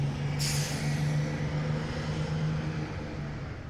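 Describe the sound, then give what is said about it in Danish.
A short hiss of air brakes releasing, followed by the steady low rumble and droning hum of a bus engine as it pulls away carrying the Danish football players and the Danish press. Loud, with no voices. “Efter spillerne er klædt om, sætter de sig ud i bussen sammen med hele den danske presse og bliver kørt afsted.”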